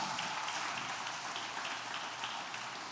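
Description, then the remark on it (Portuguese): An audience applauding, a dense, steady wash of many hands clapping at once with no individual claps standing out, holding at an even level with no voices over it. “Pode aplaudir mesmo.”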